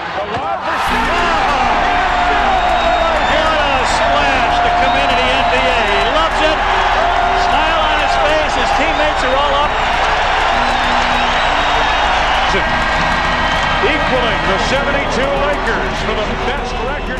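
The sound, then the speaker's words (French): An NBA basketball arena crowd cheers wildly after a Bulls basket, the bench standing, in a loud, sustained roar, many voices shouting and whooping together without letup, with the occasional squeak and thump from the court beneath. “Foul en délire. Banc debout.”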